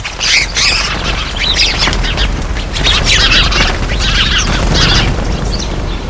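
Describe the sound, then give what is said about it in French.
White storks calling in repeated raspy, clattering bursts that come and go in waves, over a steady low rumble like wind; no one speaks. “Écoute, ferme les yeux. Imagine-toi voler avec les cigognes.”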